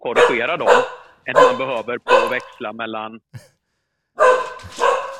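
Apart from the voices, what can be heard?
dog barking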